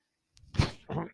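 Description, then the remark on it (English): A medical ventilator used by the speaker cycles, giving two short breathy whooshes of air, the first stronger with a low thump, the second softer and airy, over an otherwise quiet background. “That noise you are hearing is my ventilator.”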